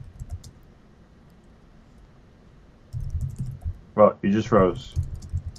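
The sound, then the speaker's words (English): Soft, rapid typing on a computer keyboard clatters in uneven bursts during a live stream, with a brief pause, then resumes as a man speaks a short phrase over the keystrokes. “Oh, I'm typing here.”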